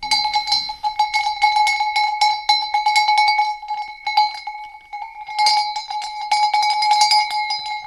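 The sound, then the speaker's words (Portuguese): A small metal sheep bell clangs rapidly and continuously, its bright ringing tone repeating in quick shaken bursts, with a brief lull midway before the jangling resumes. “Os pequenos, estes para a ovelha, também se vendem, andam na ordem dos 16, 18 euros, com coleira e tudo”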